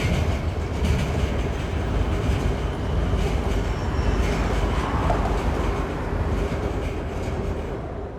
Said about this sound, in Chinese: 城市是有它自己的节奏和脉动的。是在轻轨高架下的震动